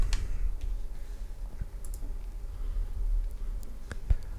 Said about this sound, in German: So, CD ist eingelegt und wir sehen hier so ein Installationspackage. Das klicken wir einfach mal doppelt an.